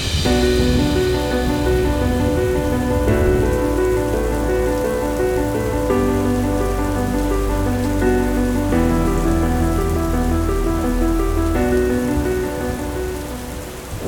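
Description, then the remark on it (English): Heavy pouring rain hisses steadily for the whole stretch, dense and unbroken, with low sustained musical tones shifting chords beneath it before fading slightly at the end. “He ran through the revolving doors to find Danica lying on the ground in the pouring rain, her large red hat completely black.”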